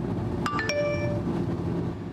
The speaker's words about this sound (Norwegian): Tekstmeldinga som tikker inn, er fra Vegvesenet og forteller at veien er åpen i hvert fall noen timer fremover.